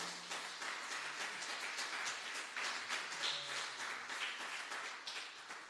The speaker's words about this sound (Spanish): Dele un aplauso al Señor. Aleluya.